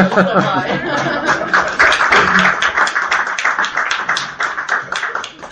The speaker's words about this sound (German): Sie dürfen klatschen, ja.